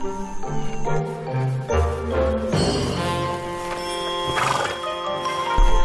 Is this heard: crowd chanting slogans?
no